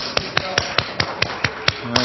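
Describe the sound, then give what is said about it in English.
Sparse applause from a small group of about eight people: about nine sharp, crisp claps in a steady, even rhythm over two seconds, fairly loud, with no talking. “You can, you can applaud. Go ahead.”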